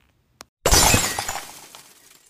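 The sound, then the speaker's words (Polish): A faint tick, then a loud, bright clash of glass jars being struck with drumsticks, ringing and clattering before fading out over a second or two, with no voices. “A mucha waliła w słoiki donośnie.”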